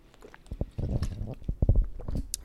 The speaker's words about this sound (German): Ähm, jetzt nehme ich mal gerade einen Schluck von meinem Shake hier. Und weil es so schön ist, auch noch von meinem Wasser.